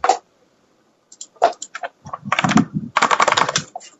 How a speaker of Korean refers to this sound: 누구야, 타자?